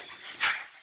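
A dog whimpers and lets out a short, sharp yip in the middle, a brief burst of canine noise with no one speaking.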